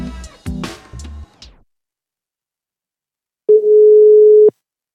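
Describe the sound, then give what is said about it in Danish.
A single steady, mid-pitched ringback tone of an outgoing phone call buzzes for about a second, loud and clear, after a brief burst of wavering, meow-like sounds and a pause of silence. “Så øh, lad os gå i gang med at ringe noget mere.”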